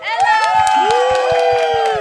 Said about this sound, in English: I have an applause for my little daughter?